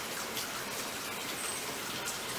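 Water from a nearby spring flows steadily, a close, continuous splashing hiss with fine droplet-like patter and no pauses throughout.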